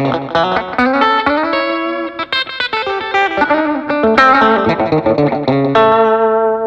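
A Telecaster electric guitar played through a pedalboard with slapback echo and compression plays a lively, twangy melodic line with short, quick echoes trailing each note, evenly loud throughout with no voices.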